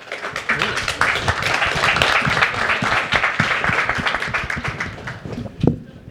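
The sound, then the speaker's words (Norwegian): An audience breaks into spontaneous applause, a dense crackle of many hands clapping that holds steady for about six seconds, with one sharper, louder clap near the end. “Men hvis det kommer spontan applaus fra publikum”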